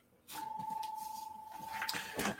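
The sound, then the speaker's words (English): A Prusa MK4 3D printer running: a steady, pitched stepper-motor whine over a pulsing mechanical whir, which cuts off near the end as the print is paused, followed by a brief rustle of movement. “It's printing on my new uh, Prusa MK4, which I've been uh, very pleased with.”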